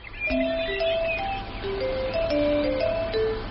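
A garbage truck's music jingle plays a simple electronic melody of sustained, evenly paced notes, steady and fairly loud, with no voices over it.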